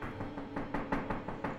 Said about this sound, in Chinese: 但是过了半个小时后，门外又发出急促的敲门声。